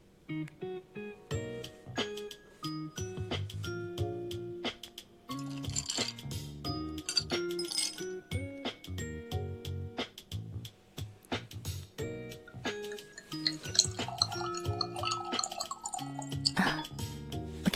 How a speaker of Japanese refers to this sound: もう一つリフィン・モヒートカクテル言葉は人生の道を登り極める女性をお作りいたしますので少々お待ちくださいませ。